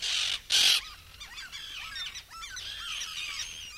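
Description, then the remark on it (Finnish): Common tern calls: two loud, harsh, rasping screeches open, followed by a busy stretch of shorter, high, scratchy chirps and squawks from several birds overlapping. “Viikon luontoääni: Kalatiira”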